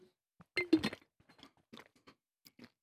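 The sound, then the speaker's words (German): Loud, crisp crunching as mild spicy potato chips called Volcano are bitten, a dense burst of crackly chewing up front that settles into softer, irregular crunches and mouth sounds, with no talking. “Ich habe natürlich auch ein Wässerli da und tue gerade mal die Schärfe ich wieder neutralisieren. Hm, die sind noch gut.”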